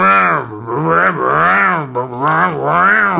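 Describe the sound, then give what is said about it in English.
A voice imitates a revving lawnmower engine, a loud, continuous droning hum that rises and falls in pitch over about three seconds. “If a lawnmower just made one sound, it's the.”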